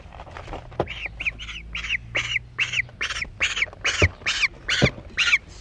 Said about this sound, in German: Sie hören also jetzt hier eine junge Graugans, die weint, weil wir sie in einen Korb gesperrt haben.